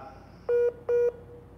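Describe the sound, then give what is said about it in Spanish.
Two short electronic beep tones, evenly spaced and equally loud, as an internet call drops and reconnects, with faint background hiss and no voices. “¿Me escuchas? Creo que se está reconectando.”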